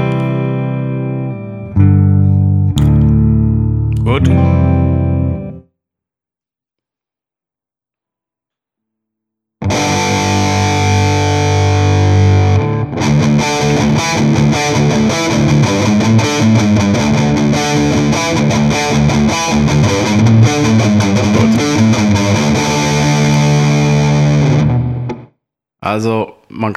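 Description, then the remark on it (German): A few clean electric guitar chords ring out with clear harmonics, then silence, followed by a long stretch of thick, heavily distorted guitar playing with dense buzzy overtones, as a distortion pedal in RAW mode with all four knobs at 12 o'clock is switched on, played through a Fender Twin amp. “Wir fangen im RAW an, nochmal kurz einen Akkord clean und dann das Ding einschalten.”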